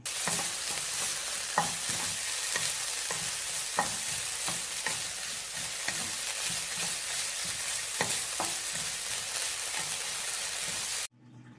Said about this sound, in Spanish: Enseguida escucho que mi mamá está cocinando mi desayuno.